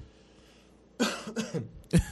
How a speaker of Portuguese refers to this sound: perdão pela gripe, pela tosse. O atleta tá me deixando doente já.